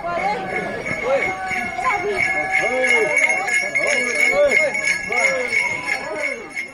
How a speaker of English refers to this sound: On a cool autumn Sunday, a group of Hopi activists with bells tied to their ankles run more than 70 miles across the reservation.